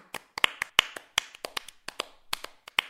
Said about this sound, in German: Das steckte auch Kaspar an. Jetzt klatschte er selber in die Hände, weil er so zufrieden mit dem war, was er gesagt hatte.